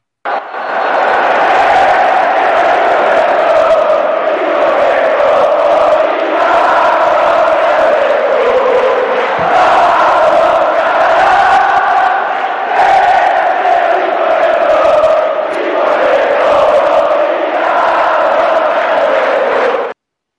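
A large crowd of San Lorenzo football fans sings a chant in unison, a loud, sustained mass of voices with a rolling melodic rhythm that continues steadily for about twenty seconds.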